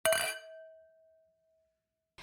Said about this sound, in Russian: А на этом моменте надо было, чтобы кто-то поднял тост, и должны были прозвучать э, звуки бокалов.